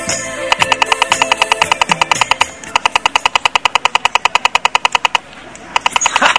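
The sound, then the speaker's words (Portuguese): A toy machine gun fires rapid, evenly spaced electronic bursts in two long volleys with a short pause between, loud, with a brief sputter at the end and no talking. “você ouviu só o som dessa metralhadora? É, é, é quase igual a de verdade.”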